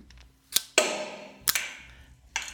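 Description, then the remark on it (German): A cork-popping sound effect: a few sharp, bright pops, one followed by a long fizzing hiss that slowly fades. No one speaks. “wir haben keine Kosten, Mühen gescheut und das Blobgeräusch eingespielt für euch”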